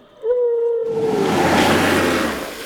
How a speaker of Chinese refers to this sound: 不过说也奇怪，怎么突然有个庞然大物，也就是一只很大只的东西喷水了？